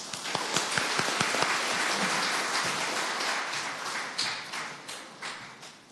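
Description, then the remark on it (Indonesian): A church audience applauds steadily as the next speaker is handed the floor, a dense patter of many hands clapping at once, with a few sharper claps standing out early before the sound gradually thins. “Mari kita tepuk tangan.”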